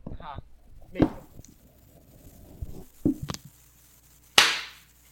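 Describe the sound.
Four sharp hand claps made near a microphone placed by a loudspeaker, at uneven intervals, a quick pair in the middle and the final clap loudest with a short ringing tail, with faint low murmuring voices between them.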